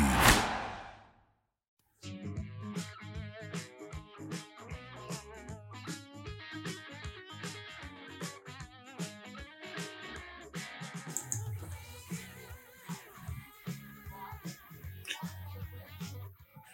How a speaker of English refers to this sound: Man, I love this new intro music. It's really good. You can hear it in the background.